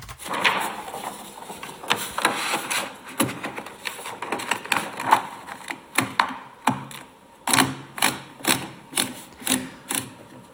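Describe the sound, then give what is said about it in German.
Crisp mechanical clatter of a braille typewriter simulator having a new sheet of paper fed in, with rattling ratchet clicks and knocks, then a steady run of evenly spaced clacks as the carriage is pushed back to the left. “So, und jetzt müssen wir ein neues Papier in die Maschine einspannen.”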